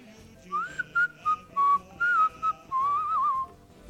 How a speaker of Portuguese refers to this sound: Eu queria um apito que funcionasse 100%, porque esse aqui às vezes se apita muito forte, ele não... É? Esse aqui tem que ser bem fraquinho.